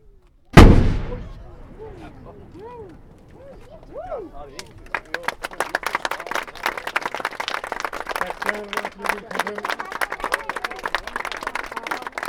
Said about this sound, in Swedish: Ja, bägge skotten gick. Vi har varit med om världsrekord Alla i utskjutning med hänsyn till kaliber och storlek.